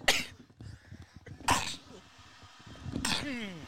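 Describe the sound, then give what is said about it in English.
Three sharp, explosive sneezes, fairly loud, each about a second and a half apart, with a low murmur of background voices between them. “salute. Thank you.”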